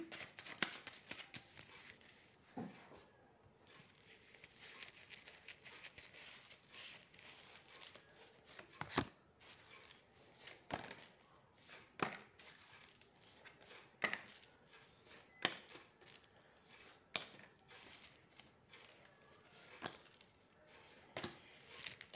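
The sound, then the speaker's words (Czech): Tarot cards being shuffled: a steady papery rustle broken by sharp, irregular snaps and slaps as the deck is cut and riffled, with no talking. “A já už se dívám na vaše fotky, míchám u toho karty a podíváme se teda spolu, co nám Tarot řekne, uh, jak to mezi vámi teda je.”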